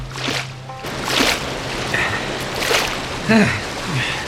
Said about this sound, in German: Sie ließen das Schlauchboot ins Wasser und paddelten los.